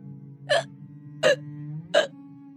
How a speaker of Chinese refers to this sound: 一阵诡异的响动从仓库之中传来，就好像是一个野兽在打嗝一般。